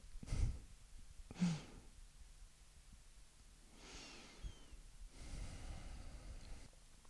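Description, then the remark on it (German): Slow, deep breaths, a couple of sharp nasal inhales followed by long, soft airy exhales, with no talking. “Atmen. Atmen wir auch ganz gut.”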